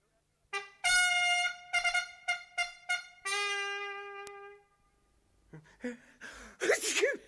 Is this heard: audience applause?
no